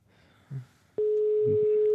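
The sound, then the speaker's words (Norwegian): A telephone ringback tone, heard while calling someone, starts abruptly halfway through and holds as one steady, fairly loud electronic hum. A faint voice murmurs quietly in the background before and beneath it. “ja, det ringer.”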